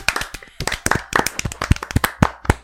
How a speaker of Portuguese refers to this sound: Uma salva de. Eu quero uma salva de palmas pro Pedro.